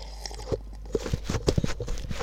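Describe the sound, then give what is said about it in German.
Irregular crunchy rustles and soft thumps as a microphone is handled and shifted around, a rapid series of scraping bursts over a low steady rumble, with no speech. “Aber ich mache nur mein Mikrofon rum.”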